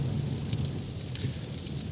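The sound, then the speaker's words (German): Steady pouring rain at night in Germany's Ruhr area, with a dense, even hiss, a low rumble underneath and a few sharper splashes. No voices. “Und jetzt geht's um 815 Beats nach Hause bei strömendem Regen im Dunkeln durchs illuminierte Ruhrgebiet, durchs künstlich illuminierte Ruhrgebiet”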